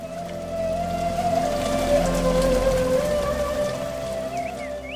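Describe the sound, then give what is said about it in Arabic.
Steady rain falls in a continuous wash, with scattered drops pattering on a surface and a low sustained hum underneath, constant for the whole stretch. “وينزل غيثك يا رحمن ويطفئ نار الشوق باحشاء الارض المشتاقه للانجاب والخضره”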